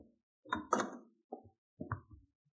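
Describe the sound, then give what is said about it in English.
A few firm knocks on a door in an uneven pattern, a heavier double rap followed by two lighter ones, with no talking. “at the door now.”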